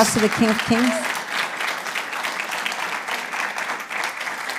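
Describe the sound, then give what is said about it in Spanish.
An audience breaks into loud, sustained applause for the King of Kings, dense overlapping clapping that holds steady throughout, with a brief voice sounding over it at the very start. “Puede darle un fuerte aplauso al Rey de Reyes.”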